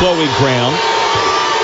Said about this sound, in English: And you can hear the boos behind me coming from the Gibson side of the fan base that that was a bad call. They didn't like it.